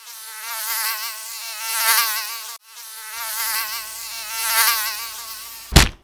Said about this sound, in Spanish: ¿Cómo es posible, cómo es posible, Doderto, que tú escuches una mosca que no escuchamos nosotros?